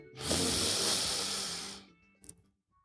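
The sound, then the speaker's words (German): A long, deep breath drawn in through the nose during a breathing exercise, a steady airy hiss lasting about a second and a half, fairly loud, followed by a brief faint rustle. “Tief ein durch den Mund, äh, durch die Nase und durch den Mund aus mit Geräusch.”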